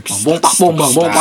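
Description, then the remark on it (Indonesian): A single voice mimics tambur drum beats with a quick run of three rhythmic, booming nonsense syllables, loud, with short pauses between the hits. “suara suara drum itu suara tambur”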